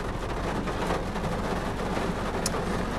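Heavy rain pours steadily outside, a dense, continuous wash of hissing and pattering that stays loud and even throughout, with no voices.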